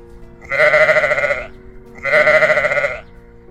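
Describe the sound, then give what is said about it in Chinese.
Two long, wavering sheep bleats, each lasting about a second with a slight pause between, loud and nasal with a quavering tremble and no talking. “在大西洋的一座海岛上，有片青草原，一群白色绵羊悠闲地在那里生活”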